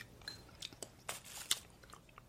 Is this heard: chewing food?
yes